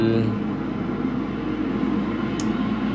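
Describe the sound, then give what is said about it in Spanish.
Steady road rumble of a moving car, added as ambience, a constant low drone of engine and tire noise that holds evenly throughout with no clear breaks or distinct events. “concepto de hoy, eh, no estoy dentro del carro en movimiento. Quizás un poquito ambientándolo para que se sienta la misma esencia, porque la esencia jamás se puede perder.”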